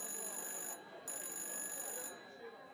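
A telephone in El Beit rings with a steady, high electronic trill that briefly cuts out before resuming, heard fairly faintly over a soft background murmur.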